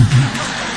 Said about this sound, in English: Clap. Can't you clap? please, before she speaks, just clap one more time.